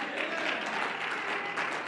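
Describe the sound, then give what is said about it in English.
A crowd claps steadily to the Lord in dense, continuous applause, with the bright, crackling texture of many hands at once and some voices mixed faintly underneath. “Oh, I wish everybody would clap your hands and shout unto the Lord today.”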